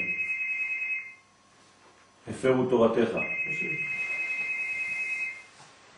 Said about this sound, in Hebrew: יש טלפון של מישהו.